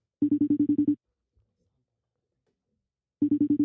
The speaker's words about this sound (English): So, so we'll call him up, and then we're going to. I'm gonna start connecting the dots for you. Ready? Here we go. We're ringing the phone.